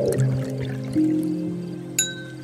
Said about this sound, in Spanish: Saca un par de copas de la canasta y destapa el vino como si fuera experto y lo sirve.